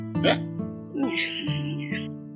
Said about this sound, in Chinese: 过了一会儿，乌鸦回来了，它舔了舔嘴，打了个饱嗝。